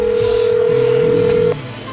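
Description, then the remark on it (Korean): A steady electronic telephone tone from an outgoing phone call hums continuously for about a second and a half, then cuts off abruptly as the unanswered call goes to voicemail, leaving only a faint low background murmur. No one speaks. “연결이 되지 않아 음성 사서함으로 연결되며 B 소리 후 통화료가 부과됩니다.”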